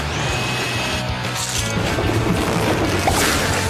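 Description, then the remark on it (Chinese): A winch motor grinds steadily as it drags the mayor's car free, a loud low mechanical hum with scraping, creaking and a few sharp cracks over it, and no voices. “阿奇，启动绞盘的马达。”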